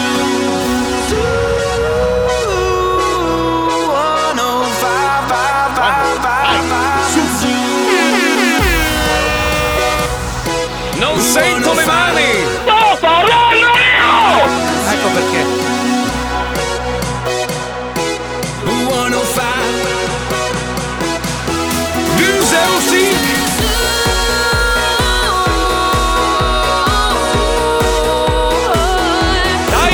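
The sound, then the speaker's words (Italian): A loud, brassy theme jingle of an Italian radio show plays for the full length, with punchy horn blasts over driving bass and dense layered music, and no voices. “E adesso sigla.”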